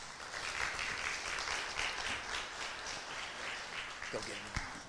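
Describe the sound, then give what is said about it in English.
A church audience applauds steadily in the morning to welcome a guest speaker coming forward, a dense wash of clapping from many hands that holds for several seconds, with a voice briefly rising near the end. “And I would just ask that you would give him a big welcome as he comes forward this morning.”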